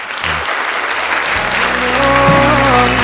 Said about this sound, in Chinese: 这个时候我们给给予一个掌声